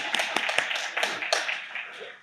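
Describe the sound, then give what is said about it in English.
An audience applauds during a sermon, a dense wash of many overlapping claps with a few sharper slaps standing out, steady and tapering slightly toward the end. “Go ahead, clap. Get it out.”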